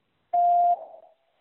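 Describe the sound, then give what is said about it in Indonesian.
A single steady electronic beep signalling the time to answer a quiz question, clear and moderately loud, lasting under half a second before trailing off into a short fading echo; no one speaks. “Silakan jawab setelah nada berbunyi.”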